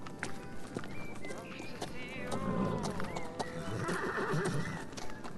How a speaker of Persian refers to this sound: چقدر جالب اونجا رو ببین یه سری یه سری اسبن که دارن از اون تو رد میشن چقدر باحال